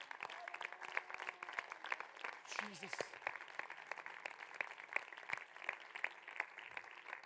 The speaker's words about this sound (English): Somebody clap your hands and give thanks to the Lord tonight.